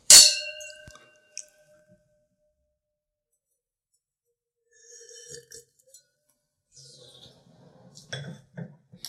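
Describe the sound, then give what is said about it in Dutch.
Wine glasses clink together once in a toast, a sharp bright ring that hangs briefly before fading, followed by a few soft sips of straw-yellow wine and small mouth sounds. “Nou, uh, proost.”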